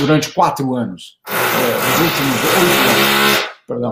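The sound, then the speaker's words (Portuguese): A neighbour's power drill whirs loudly and steadily for a couple of seconds, a harsh, grinding buzz that cuts off abruptly, with people talking just before and after it. “O seu aí tá botando furadeira para”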